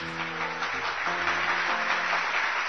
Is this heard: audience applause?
yes